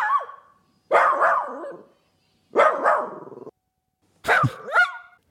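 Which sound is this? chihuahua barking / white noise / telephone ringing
chihuahua barking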